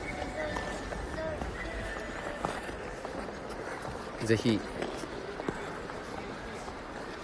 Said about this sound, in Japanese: 今はですねまさにライブ配信こうしながらスケートを滑ってます長女と手をつなぎながら滑ってます